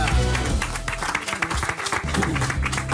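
Sustained applause from an audience on an RTL broadcast, a dense, even patter of many hands clapping for the full few seconds, fairly loud, with faint low tones running underneath.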